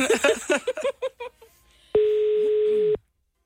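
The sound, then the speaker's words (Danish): A person speaks briefly, then after a short pause a single loud, steady telephone tone sounds for about a second, like a busy signal on a phone line. “Personen, du har ringet til, er optaget i øjeblikket.”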